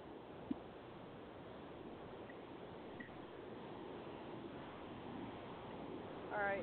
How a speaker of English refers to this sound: Um, noise in the background? Me? Yes. Is that your your truck? Is uh? I'm just you just hear the tires rolling on the road because the windows is up.